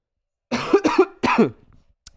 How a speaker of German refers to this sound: Ein Live-Husti hier im Kruxcast.